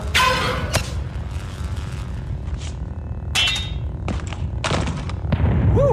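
Several sharp shots from a blaster crack out in quick bursts over a steady low rumble, each a bright, noisy burst, with a whooping electronic zap near the end and no voices.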